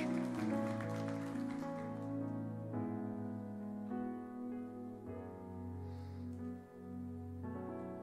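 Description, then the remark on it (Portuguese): An audience applauding God during an evening church service, in a dense, steady patter of clapping that runs the whole time, layered over sustained, warm keyboard chords that shift every couple of seconds. “Aplauda Ele nesta noite.”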